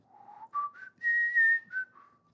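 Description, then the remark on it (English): A person whistles a short, simple melody of several distinct notes rising and falling in pitch, clear, with no talking over it. “so so a melody is just something that you can sing or whistle”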